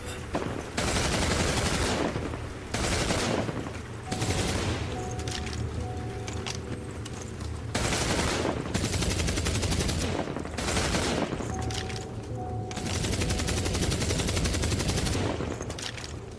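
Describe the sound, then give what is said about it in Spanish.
A loud, sustained volley of gunfire, many rapid overlapping shots crackling together in dense bursts with only brief lulls, continuing for about sixteen seconds without any voices. “El escuadrón empezó a disparar sin piedad.”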